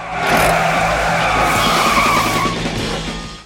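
A car brakes hard to just miss an accident right in front of it, with a loud, sustained tire skid, a harsh squealing screech over engine rumble that holds for about three seconds before easing off. No one speaks.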